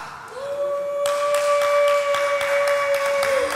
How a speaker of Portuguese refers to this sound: Forte esse aplauso à palavra de Deus.